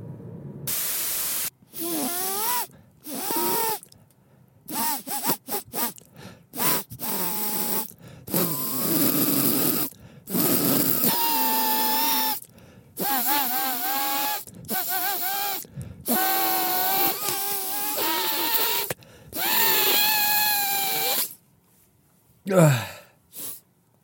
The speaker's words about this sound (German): So klickt meine Nase, wenn sie verstopft ist.